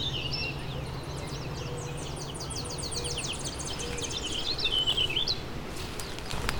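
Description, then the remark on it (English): A Tennessee warbler sings a rapid string of high, varied chirps and warbles, hurrying from one phrase to the next without pause, set against a steady low background rumble. “Usually it switches more gracefully between them, but there's one over there that's being a little rushed.”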